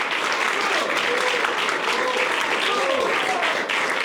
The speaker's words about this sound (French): et c'est la première fois, vraiment, je vous le redis, que je vois le public applaudir autant.